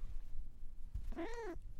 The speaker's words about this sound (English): Here's Cece for your little outing. she sounds like a little alien, right? Do you love it when your cat does that?